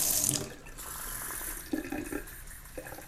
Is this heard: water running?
yes